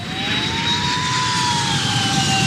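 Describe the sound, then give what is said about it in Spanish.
A loud, steady jet airplane roar with a high turbine whine that slowly bends in pitch, like a plane passing overhead as it comes in to land. No voices. “Piloto aterrizando, vamos.”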